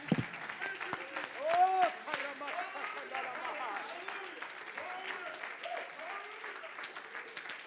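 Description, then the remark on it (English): An audience claps their hands to the Lord in a steady, dense burst of applause lasting several seconds, with voices calling out and cheering over the clapping. “Oh, come on, if you know that's true, would you just clap your hands to the Lord right now?”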